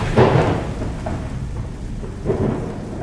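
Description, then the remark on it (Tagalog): Steady heavy rain hisses throughout while low rumbles of thunder roll in twice, once near the start and again toward the end, loud, with no voices. “Kapwa na kaming basang-basa sa ulan.”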